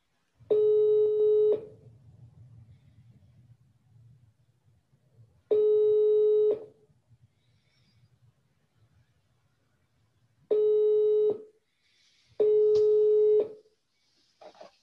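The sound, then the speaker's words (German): A telephone ringback tone, while calling a colleague, repeats four times, each steady buzzing tone lasting about a second with pauses between, loud and clear over a faint low background hum. “es ist vielleicht ganz gut, einfach mal meinen Kollegen, in den Wieland, anzurufen”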